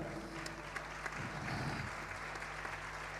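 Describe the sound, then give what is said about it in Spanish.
An audience claps for a singer who has just been introduced, a dense, continuous wash of many hands with no breaks, holding an even loudness from start to finish. “Eh, fuerte el aplauso, gracias por estar.”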